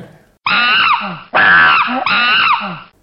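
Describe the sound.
A man's voice imitates a screaming antelope with three loud, strained, harmonically rich cries, each about a second long, with no other talk.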